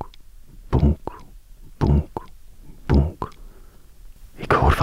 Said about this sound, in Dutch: Terwijl ik adem, hoor ik het lintje van mijn opnametoestel dat rond mijn nek hangt, hoor ik dat lintje tegen mijn touw schrapen.